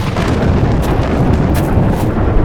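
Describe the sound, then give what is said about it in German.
A heavy, continuous rumble of thunder from a storm over mountain peaks rolls on for a couple of seconds after lightning, deep and loud, with a dense low-end roar and occasional brighter crackles, no voices present. “Mein Tipp bei Gewitter im Freien, hinhocken und beide Füße nebeneinander auf den Boden.”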